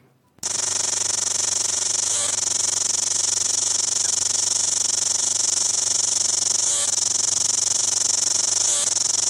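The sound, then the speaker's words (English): A New Zealand cicada buzzes loudly and steadily, a harsh electric whine that starts abruptly and holds on, with a few brief clicking stutters breaking the drone. “and here is a New Zealand cicada.”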